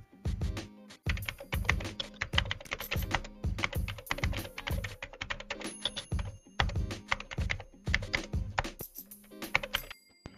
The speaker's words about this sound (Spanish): Y el sonido débil, que pusimos de ejemplo los dedos sobre las teclas de un ordenador.